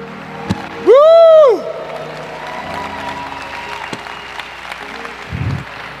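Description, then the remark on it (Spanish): An audience applauds with a steady wash of clapping that lasts several seconds, opened by one loud, rising-and-falling whoop or cheer near the start. “No, no, no, no, yo que usted daba un aplauso.”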